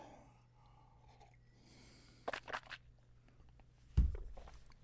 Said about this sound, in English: I need a sip of water. This is only water now.